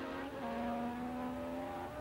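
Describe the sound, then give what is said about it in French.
A loud, steady high-pitched engine whine from racing cars at the start of a Grand Prix, with a Lotus taking the lead, holding one strained note for a couple of seconds with no voices. “Villeneuve, embouteillée au départ par d'autres voitures, se retrouve en quatrième place.”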